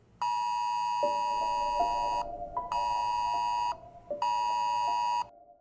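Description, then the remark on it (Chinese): An Amber Alert emergency alert tone, warning of a child abduction, sounds three times: loud, harsh, buzzy blasts about a second and a half each, separated by brief pauses, with no voices. “今天我们要来聊聊儿童犯罪案件背后不可或缺的一大要素——安博警报。”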